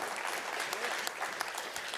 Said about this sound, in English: It's all right, we can clap for that too.